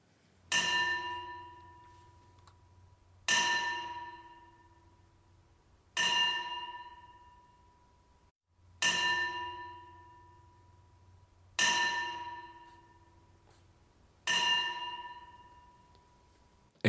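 An old church bell tolls six times at a slow, steady pace, each strike ringing out with a bright metallic clang and long shimmering decay, with no voices present.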